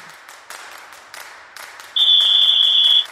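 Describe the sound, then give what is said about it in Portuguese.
A short first-quarter segment jingle of a flag football show, built from crowd-like noise with rhythmic swells, then a loud, steady, high-pitched buzzer tone that holds for about a second before cutting off. “Eu já escutei o apito, então roda a vinheta aí do primeiro quarto.”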